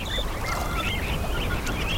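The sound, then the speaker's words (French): Seabirds call over and over in overlapping, honking cries, moderately loud above a steady low rumble of wind or water, with no voices present. “Mais ils mourront quand même ces oiseaux, dans la mer, à cause du réchauffement.”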